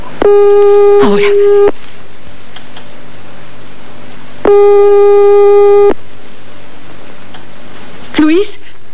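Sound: telephone busy signal tone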